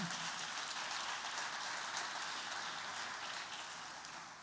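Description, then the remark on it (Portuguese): A crowd claps for Jesus in sustained applause, a dense steady patter of many hands that holds evenly throughout and eases off slightly toward the end, with no voices over it. “Dá um aplauso a Jesus aí, então.”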